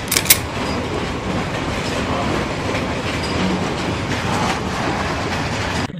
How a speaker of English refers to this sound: I noticed the railway line running right outside their window. How often does the train come?